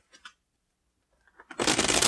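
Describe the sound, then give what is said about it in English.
A deck of cards being shuffled, with four cards shuffled back into it: a couple of soft taps and handling noises, then a loud, dense riffling burst that fills the last half-second. No one speaks. “okay now i'm going to take these four cards and shuffle them back in”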